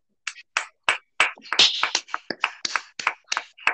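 A short burst of applause: a dozen or so sharp, bright hand claps in a quick, slightly uneven rhythm, briefly bunching together midway, with no voices over them.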